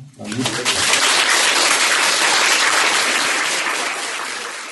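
A crowd claps steadily for the guests, a dense, even patter of many hands that starts almost at once, holds loud for several seconds, then begins to thin slightly toward the end.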